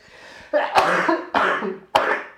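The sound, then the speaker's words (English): A burst of three harsh, throaty coughs in close succession, loud, each opening with a sharp attack and trailing into a raspy, breathy tail. No speech is heard. “Stop with the coughing already.”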